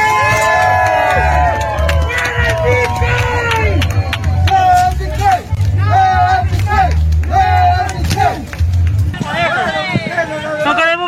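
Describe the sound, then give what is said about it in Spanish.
A protest crowd in El Salvador shouts and chants together against the use of Bitcoin, many raised voices overlapping in a loud, continuous roar with rhythmic bursts, carried over a steady low rumble throughout. “Escuchemos cómo protestaron en El Salvador.”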